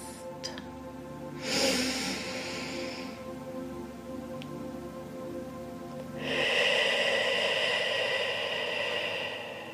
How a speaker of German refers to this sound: Beginne nun für dich für drei Atemzüge tief einzuatmen, den Atem zu halten und dann durch geöffneten Mund länger auszuatmen als einzuatmen. Einfach so.